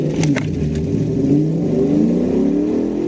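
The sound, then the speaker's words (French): The V8 engine of a two-door Ford Gran Torino revs steadily with a deep, throaty rumble and rising harmonic whine, loud and continuous for about three seconds with no voices. “Ford proposer cinq motorisations différentes sur base de V8 avec des cylindrées allant de 5,8 litres à 7,5 litres pour des puissances variant de 140 à 240 chevaux.”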